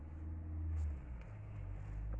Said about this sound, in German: Ja, sorry, dass ihr gerade die ganze Zeit Hintergrundgeräusche, Hintergrundgeräusche hört. Ich bin gerade in einem Auto drin